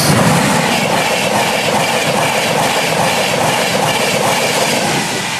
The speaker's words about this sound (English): Now, that train is literally metres away from people's homes. We're talking 10 metres.